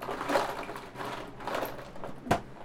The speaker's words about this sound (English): crack open another cold one. Canada Dry Black Raspberry Water.